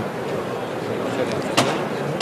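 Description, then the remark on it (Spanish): A single sharp knock from a knocker hammer striking a procession float bearing a statue of the Virgin under a canopy, stopped before a viewing stand, rings out near the end, cutting through a steady wash of crowd murmur and indistinct voices. “Y suena el martillo.”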